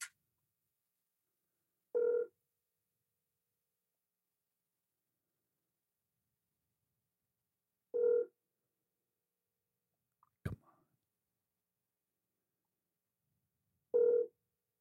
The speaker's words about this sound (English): We know his voice here, so yeah, we'll see if he see if he answers. Can you hear the the ring? Yep. Is it good? All right.